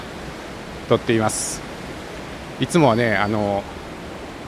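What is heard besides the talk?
river water flowing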